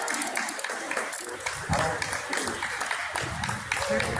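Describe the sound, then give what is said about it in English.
A group of people clapping in a steady, dense patter that runs the whole length without a break, with indistinct voices mixed in underneath. “And they're clapping.”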